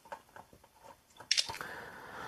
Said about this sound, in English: Um, okay, so we're now pouring this stuff into the bowl.